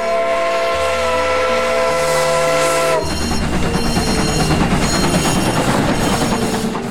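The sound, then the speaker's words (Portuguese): A loud steam train whistle blows a sustained, multi-toned blast for about three seconds, then gives way to a steady rush of hissing steam and rumbling train noise with no voices. The train is bound for Paris, France. “Mas com sorte conseguiram embarcar em um trem rumo a Paris sem maiores demoras.”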